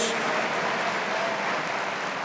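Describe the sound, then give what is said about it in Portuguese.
A crowd claps for God steadily throughout, a dense, even wash of applause that holds at a fairly loud level for the whole couple of seconds, with no one speaking over it. “E não somente nessa noite, mas eu espero que todos os dias da tua vida, só quem quer, aplauda Ele, diga aleluia, diga glória a Deus.”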